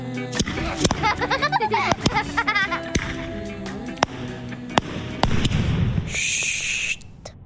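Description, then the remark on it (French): Firecrackers explode in an irregular series of sharp, loud bangs over several seconds, mixed with wavering vocal cries and ending with a brief high hiss. “Mais ma période la plus créative, et qui engloutissait une bonne partie de mon argent de poche, ça a été la période pétard.”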